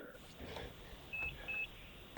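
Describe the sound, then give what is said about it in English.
Two short, high electronic beeps from a hospital monitor, evenly spaced about a third of a second apart, fairly faint against a muffled room background. “Are you in the hospital right now? Yes, sir. oh my God, I just I heard the, the beeping.”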